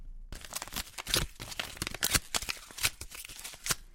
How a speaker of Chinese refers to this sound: 于是他把照片撕碎了。